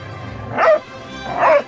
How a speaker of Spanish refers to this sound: Y cuando pensaron que el perro las mordería, apareció Guacamole, quién sabe de dónde, y con fuertes ladridos se paró frente a ellas para evitar que el perro se les acercara más.